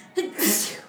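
A single sharp, fairly loud sneeze: a quick inhaled catch followed by a bright, hissy burst that trails off within a second.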